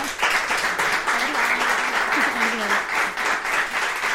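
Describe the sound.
An audience breaks into applause: dense, steady clapping that holds at a fairly loud level for about four seconds, with a faint voice briefly audible beneath it.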